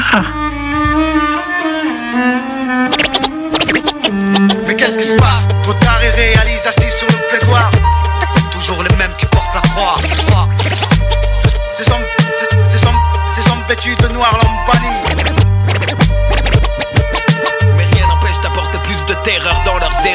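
A rap song plays loud and close, with booming bass notes and sharp drum hits driving a steady beat beneath a layered melodic backing, continuous throughout with no one talking over it.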